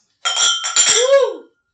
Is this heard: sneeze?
no